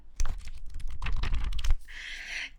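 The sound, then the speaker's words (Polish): Crisp paper rustling and crinkling as pages of a Forbes magazine are handled and flipped while looking for a page with an article, a quick burst of sharp crackles followed by a softer, hissing slide of a page. “Ponieważ dlaczego zostałam tak wyróżniona i teraz trzymam w ręku tą gazetę, czy słyszycie?”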